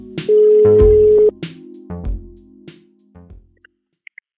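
A single steady telephone ringing tone sounds for about a second over a phone line as someone places a call, followed by a few clicks and thumps as the call connects, with no talking.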